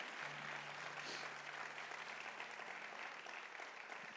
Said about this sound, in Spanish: Vamos, dale un aplauso fuerte a Jesús.